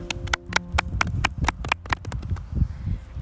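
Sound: audience applause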